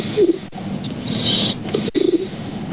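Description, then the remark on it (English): A man snoring with a throaty, warbling coo like a pigeon, two short gurgling bursts set against a steady background hiss, moderately loud. “think he had a pigeon stuck in his mouth.”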